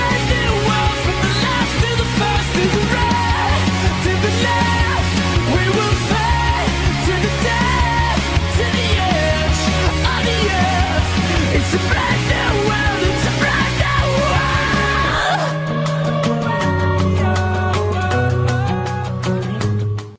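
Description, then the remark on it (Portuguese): A loud, dense rock song with shouted vocals over pounding drums and heavy guitars, playing continuously before the arrangement shifts to a sparser, punchier section near the end. “pouco de gritaria, professor, para começar o tema do dia, né?”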